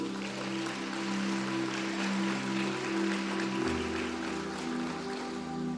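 An audience applauds for Jesus in a steady, dense wash of clapping, while sustained low keyboard chords hold underneath and shift pitch partway through.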